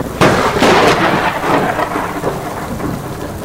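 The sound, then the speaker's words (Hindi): Steady, loud rain pours down outdoors as a dense hiss, with heavy rumbling thunder rolling through in the first couple of seconds. No voices are heard. “बाहर तो बारिश हो रही थी लेकिन यहां सूखा तो था ही साथ ही चांदनी भी थी”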